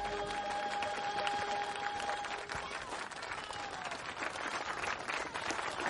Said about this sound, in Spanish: Gracias, artistas, y bravo, payasos. Damas y caballeros, les pido un fuerte aplauso para la compañía del Circo de Francia.